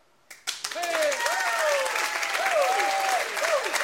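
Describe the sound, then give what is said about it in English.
After a brief quiet moment, an audience breaks into loud, sustained applause for good news about the prayer wall and prayer team, with voices whooping and cheering over the dense clapping until the end. “If it was your life, your family, how would you clap?”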